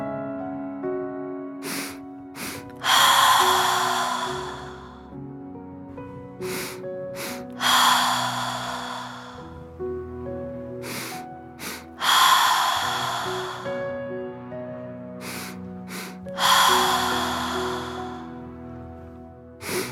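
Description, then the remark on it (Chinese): Breathing in a repeating cyclic-sighing breathing exercise: two quick, sharp sniffs through the nose, a light one then a heavy one, then a long, breathy sigh out through the mouth. The cycle repeats four times, steadily, with no talking. “动作讲解：鼻吸口呼，吸气两次，轻吸，重吸。”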